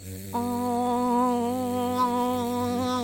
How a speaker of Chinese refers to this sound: 哦，这个很熟悉吧？冰崩冰崩，答对了，就是蜜蜂喽。